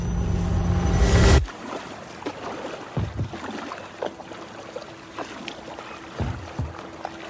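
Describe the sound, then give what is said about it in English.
A small boat is paddled through open water about 12 miles off the coast. It starts with a rush of noise, then soft, evenly spaced splashing strokes and gentle water sounds. No one speaks. “It's a long way to paddle.”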